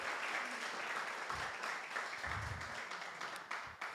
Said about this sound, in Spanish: Dale un aplauso a Dios. Honrelo.